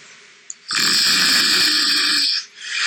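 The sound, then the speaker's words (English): A pet gives one long, loud snore lasting nearly two seconds, raspy and wheezy with a strong nasal whistle, followed by a softer breath starting up again. “So it goes like all different snores.”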